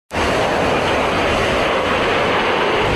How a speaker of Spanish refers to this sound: Este viernes el escuadrón Thunderbirds de la Fuerza Aérea de los Estados Unidos calentó los motores para el espectáculo aéreo de este año en la playa de Fort Lauderdale.